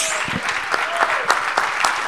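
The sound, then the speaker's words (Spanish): An audience applauds the Lord steadily, a dense wash of many hands clapping with a few sharper accents standing out, sustained and fairly loud throughout without any speech. “Ahora sí démosle un buen aplauso al Señor.”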